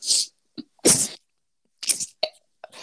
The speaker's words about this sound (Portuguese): Aí, edição, aí, edição, vamos manter esse espirro?